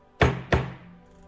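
Two heavy knocks land about a third of a second apart at the front door, each a sharp, solid thud with a short low ring, fairly loud, like rapping on a wooden door. No one speaks.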